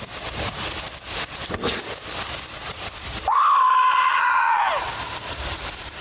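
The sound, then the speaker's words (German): After a few seconds of rushing storm wind noise, a person lets out a single loud, high-pitched scream, held for about a second and a half before it breaks off. “Du musst schreien!”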